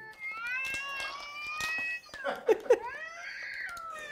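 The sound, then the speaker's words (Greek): A sound-effect button on a toy like a small phone with buttons plays a high, squeaky, warbling voice saying "baby," sustained for about two seconds, then two sharp bursts and another drawn-out, whiny vocal tone. “Ναι, έχει έναν ήχο που λέει baby.”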